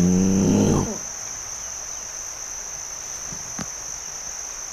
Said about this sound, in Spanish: Matías escuchó un ruido, como el de un tigre